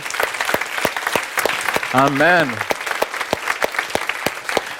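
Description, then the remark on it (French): A church audience claps steadily throughout at a morning service, a dense patter of many hands, while a single voice briefly calls out a drawn-out word over the applause midway. “Donnez-lui une vraie acclamation par la foi ce matin.”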